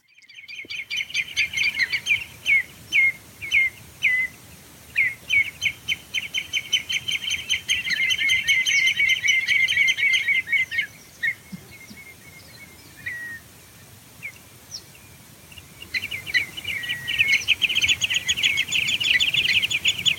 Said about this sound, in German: Stellt euch einfach mal vor, ihr sitzt am Wattenmeer, das Wasser ist weg, ihr guckt auf diese endlose Weite, auf glitzernde Wattrippel, auf die untergehende Sonne und dann hört ihr das hier.